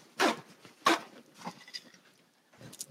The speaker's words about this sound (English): I'm just going to do it with you. I'm going to grab these paper towels.